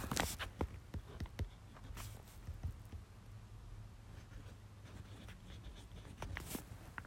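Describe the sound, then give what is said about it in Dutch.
Quiet squeaks and scratchy strokes of a felt-tip marker writing words on a page of paper, coming in irregular bursts with brief pauses between them, and no voices. “En um, laat me away er even bij schrijven.”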